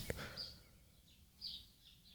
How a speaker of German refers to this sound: Was ich meine, natürlich der Lärm der Vögel hier im Garten. Was nur scheinbar irgendwie romantisch oder ach so naturverbunden ist, ist einfach. Oh. Ich mag es einfach.